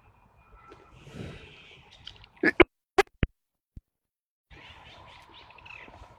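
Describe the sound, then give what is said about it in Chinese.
Faint, steady bird chirping runs through an outdoor background, broken midway by several sharp scratching and handling knocks before the soft birdsong texture returns. Recorded with a Rode microphone while birdwatching from a hammock. “听着鸟叫、看着鸟飞。”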